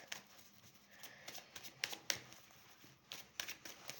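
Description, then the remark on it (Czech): Tarot cards being shuffled for a card reading: a quiet run of soft, papery rustles and flicks, with a few sharper slaps of cards landing in an uneven rhythm, and no voices. “A já už se dívám na vaši fotku, míchám u toho karty a uděláme nejdřív ten finanční a potom se podíváme na ten roční.”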